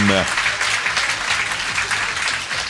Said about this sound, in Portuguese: Aplausos para ele, auditório.